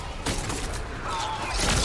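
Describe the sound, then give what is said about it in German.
Loud video game explosions: a sharp blast near the start, a rumbling crackle of debris, then a bigger booming burst swelling at the end, full. “Explodiert, Bruder.”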